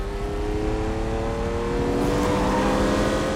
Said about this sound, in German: Vintage Formel 1 Modelle aus den Häusern Ferrari und Maserati sind zu sehen in Aktion. Es sind originalgetreu nachgebaute Replikate mit viel PS unter der Haube